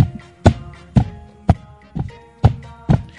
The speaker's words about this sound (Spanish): Y entonces él, como era el único que podía bajar a abrir la puerta, bajó tranquilamente las escaleras, escuchaban los pasos.